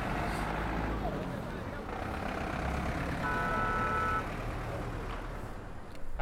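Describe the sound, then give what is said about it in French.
A bus engine rumbles steadily at the start of a 15-hour bus journey, with a brief reversing-style beep tone sounding for about a second midway, and muffled voices murmuring in the background. “Bon voilà, et là c'est parti pour 15 heures de bus.”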